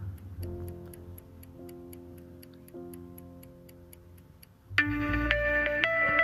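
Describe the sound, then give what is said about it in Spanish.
Steady ticking of a countdown timer timing a breath-hold during a breathing exercise, evenly spaced ticks over soft sustained background music, which swells louder and brighter near the end. No one speaks. “Estás escuchando ahí un relojito, es un temporizador.”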